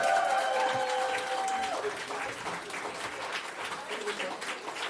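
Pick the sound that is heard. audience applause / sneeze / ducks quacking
audience applause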